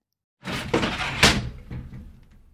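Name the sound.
door being closed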